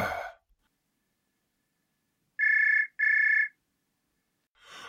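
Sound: telephone ringing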